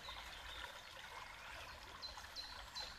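Water trickles softly and continuously, a quiet, steady babble with no voices, while a few brief, faint high chirps appear toward the end.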